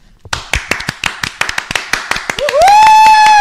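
A short burst of hand clapping on a radio programme, a quick round of applause in homage to a birthday, about a dozen sharp, slightly uneven claps, then a steady, loud high-pitched whistling tone takes over at the end.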